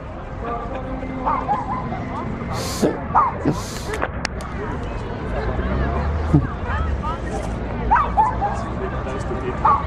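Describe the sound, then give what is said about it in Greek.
A small dog barks in short yips and lets out whimpering whines against a busy background with other voices and noises around it. “Λοιπόν, κάτσε σκυλάκι”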